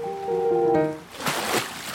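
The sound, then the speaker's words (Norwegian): A short tonal, voice-like hum, then a couple of soft sloshing splashes as someone wades a little way out into cold water. “Jeg går litt ut i vannet.”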